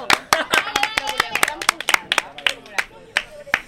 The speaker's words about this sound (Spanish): Un aplaudimiento. Bravo.